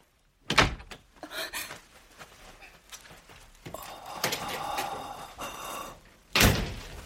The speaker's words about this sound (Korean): 방문이 닫혔다.